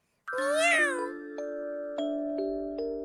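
A cat gives one loud, drawn-out meow that rises and falls, then a few soft, sustained chime notes ring out one after another.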